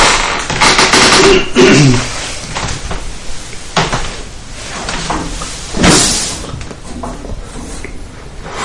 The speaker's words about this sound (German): an dem Rädchen, das an der Tür ist. Unten. Ja, genau. Oh ja, jetzt wird's ange... Klick-Klack.